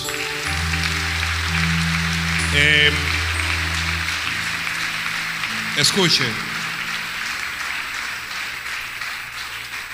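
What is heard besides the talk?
loud applause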